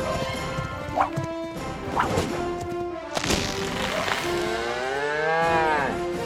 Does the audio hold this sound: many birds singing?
no